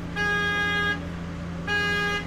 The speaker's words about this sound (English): a sleek steel vehicle, almost like a Tesla truck, that sprays pesticides along a programmed route. It honks at the end of every row.